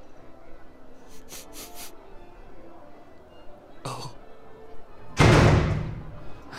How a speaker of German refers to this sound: Einem so belesenen Menschen wie mir einfach die Tür vor der Nase zuzuschlagen.